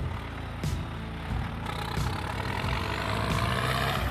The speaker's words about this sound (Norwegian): Og et knapt halvminutt etterpå er heatet over, og den blå traktoren til Asbjørn raser over målstreken rett før konkurrenten.